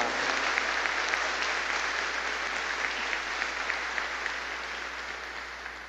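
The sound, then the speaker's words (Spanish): A large group claps steadily for several seconds in honour of Santa Rosa de Lima, a dense, sustained patter of applause, gradually tapering slightly toward the end. “que viva nuestra patrona Santa Rosa de Lima y que se oiga el aplauso a Santa Rosa.”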